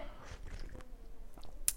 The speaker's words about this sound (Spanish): Dejen tomar un traguito de agua porque tengo mucha sed.